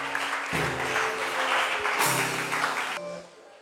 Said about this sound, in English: Clap your hands for the Lord.